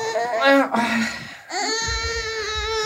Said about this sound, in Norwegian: babygråt i monitor, det er ingen som har vondt av det.